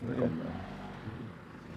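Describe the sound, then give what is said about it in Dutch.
A car passes by on a narrow dike road outdoors, its engine hum and tyre noise swelling briefly and then easing off over a couple of seconds. “Het is zo smal dat die auto's hebben ruimte nodig.”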